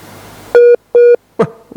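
A phone call disconnect tone as the call drops: three loud, steady mid-pitched beeps in an even rhythm, the last one cut short, with quiet background noise at the start and no voices.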